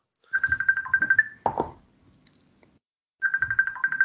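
A telephone rings in two trilling bursts about two seconds apart, loud, with a brief thump between the rings and no one speaking.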